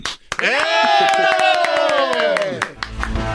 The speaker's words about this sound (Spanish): Por favor, pido el aplauso y la aplausa para la primera futura dama.